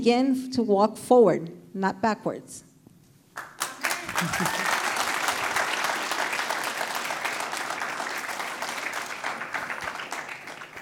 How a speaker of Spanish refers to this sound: Dele ese fuerte aplauso, como que usted lo cree, usted lo confía.